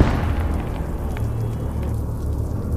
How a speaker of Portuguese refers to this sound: Uma, uma explosão muito alta é ouvida. A, a casa chega a tremer um pouquinho. A, a luz pisca, mas ela acende de volta.